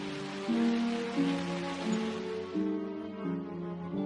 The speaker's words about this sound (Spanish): Júpiter, con sus extrañas franjas nubosas y su gran mancha roja. Un mundo tan radiactivo que los chisporroteos se podían escuchar desde la Tierra.